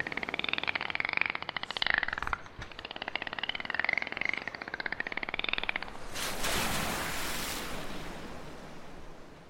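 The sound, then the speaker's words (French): A group of dolphins leaping out of the ocean chatter with warbling, rising-and-falling whistles over rapid clicking pulses for several seconds, then a loud, hissing rush of ocean surf sweeps in and fills the rest. “Vous les entendez chanter joyeusement dans une parfaite cohésion.”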